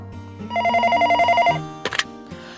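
A telephone rings at a part-time job with a fast, warbling electronic trill lasting about a second, followed by a short clatter as if the handset is picked up. No one speaks.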